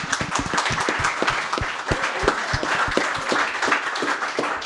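An audience in a bar applauds itself, clapping steadily for several seconds, a dense patter of many hands with sharp individual claps standing out, loud and continuous without voices.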